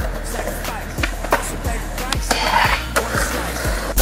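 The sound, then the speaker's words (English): A skateboard rolls and grinds along a rail, its wheels rumbling steadily beneath a harsh scraping rasp, punctuated by several sharp clacks and knocks. It's loud, with no voices. “It's time to hit this rail we call life and grind it.”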